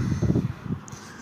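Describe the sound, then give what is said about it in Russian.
Low, muffled buffeting of wind against a microphone, a few soft thumping gusts in the first half that fade into a steady quiet hiss, with no voices. “Ветра поменьше.”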